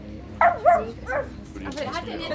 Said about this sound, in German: musst du eigentlich deinen Scheißköter immer mit in die Konfis nehmen?